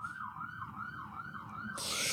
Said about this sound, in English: the sirens like could not be louder. They're like in my apartment.